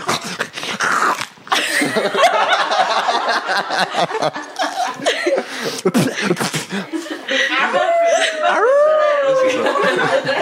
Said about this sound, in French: le bruit est un peu trop long pour faire os cassé